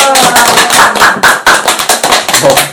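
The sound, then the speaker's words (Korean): A group of people clapping together, a dense, loud run of overlapping hand claps with a fairly steady rhythm lasting a few seconds, with a few voices mixed in. “청소년 알바 어떻게 생각하는지 또 어떤 게 좋은지 등등 자유롭게 얘기하는 시간을 박수로 갖겠습니다.”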